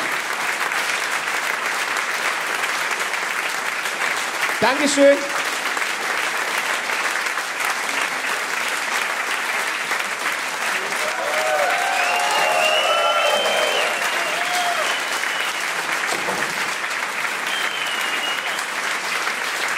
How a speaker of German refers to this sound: Ich sage danke an euch, an Schwäbisch Gmünd. Dankeschön. Boah, Gänsehaut. Uh. Vielen lieben Dank. Vielen Dank. Der Applaus ist für euch.